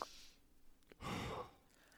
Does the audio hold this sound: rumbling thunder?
no